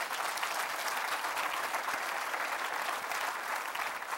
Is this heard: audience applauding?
yes